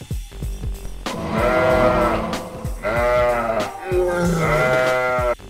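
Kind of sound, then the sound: animal, sheep bleating sound effect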